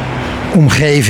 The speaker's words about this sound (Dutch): En eh, wij moeten oversteken naar het Vesta-gebouw. Dan is dat hier een enorme verkeersomgeving